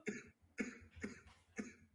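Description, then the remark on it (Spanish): Four harsh, forceful coughs in quick succession, evenly spaced about half a second apart, with no talking in between. “Estoy muteando a mí cuando tose fuerte y así ah, luego la grabación.”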